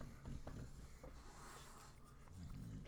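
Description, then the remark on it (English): A small dog snuffles and sniffs near the microphone, soft repeated snorting breaths with faint rubbing noises, quiet overall and with no talking. “oh, my little doggy came up here.”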